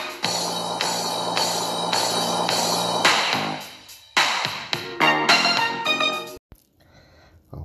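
A 1980s hip-hop song plays loud, with a punchy repeating beat and bright synth stabs, before breaking into choppy hits and cutting off abruptly into near silence.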